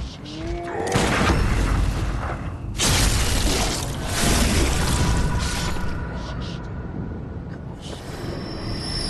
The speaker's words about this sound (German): Und zwar über eines der wohl schönsten Geräusche im ganzen Spiel. Und zwar, wenn es gelingt, einen gegnerischen Angriff zu parieren und dann einen kritischen Angriff selbst auszuführen. Das hören wir uns jetzt mal an.